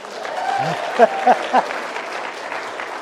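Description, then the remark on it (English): A crowd claps steadily for about three seconds, a dense even patter of many hands, with a few brief louder bursts of voices cutting through near the middle. “Uh, let's hear your applause if he were.”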